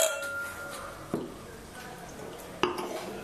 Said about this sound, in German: Das, das ist so ein Glas, Ding, das haben ein viele. Glas gehört geerdet. Das haben so viele. ist das. Ich habe schon nach dem Anstoßen erdet man sein Glas.